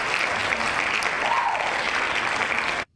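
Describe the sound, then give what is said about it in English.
Dense, steady applause from a group of people clapping, a continuous crackle of many hand claps that runs for about three seconds and then cuts off abruptly. “Hand claps.”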